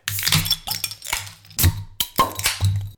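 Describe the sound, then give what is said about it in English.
A New Belgium Accumulation beer is opened and poured, with a series of sharp clinks and clatters, bursts of fizzing hiss, and a low steady hum underneath; no one speaks. “with Brian's exit, we crack another beer.”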